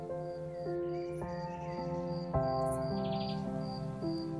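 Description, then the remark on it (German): Grasshoppers chirp in steady, rapid repeated pulses, fairly faint beneath louder sustained background music with slowly changing notes. No one speaks. “Ein wunderschönes, deutliches Zirpen dringt in deine Ohren. Die Grashüpfer singen.”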